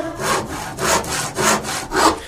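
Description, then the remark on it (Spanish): A carpenter's hand saw rasps through wood in four steady back-and-forth strokes, each a broad, gritty hiss, fairly loud with no one talking. “Yo soy el carpintero y me pongo a serruchar.”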